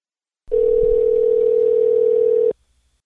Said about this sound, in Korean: 뉴저지 지역에서 CD를 보급하고 계시는 최준섭 봉사자님 전화로 연결해 보겠습니다.